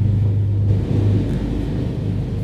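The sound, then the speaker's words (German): A steady, heavy low rumble of a helicopter coming down to land at a hospital, its engine drone loud and continuous throughout with no voices. “Wir warten es mal ab, weil es landet gerade ein Helikopter.”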